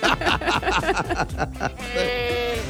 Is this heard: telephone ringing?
no